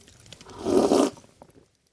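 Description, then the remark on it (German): A single noisy slurp of frothy coffee in the early morning, a brief airy sipping burst lasting about half a second, heard on its own with faint rustling before and after. “also ich war äh, kurz, kurz, kurz heute früh, es ist früh, es ist früh und ich, ich schlürfe”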